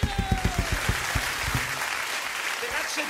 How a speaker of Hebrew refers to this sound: את כל השירים במופע כמובן כתבה …, כמובן. בואו עוד כפיים ל….